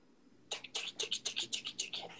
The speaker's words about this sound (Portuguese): Cara, o barulhão, velho. Como assim, barulhão? Barulhão do teclado. Rapidinho, deixa eu terminar de escrever. Tá um barulhão muito, muito alto, velho.